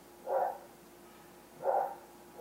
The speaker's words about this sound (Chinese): 隔壁的小狗。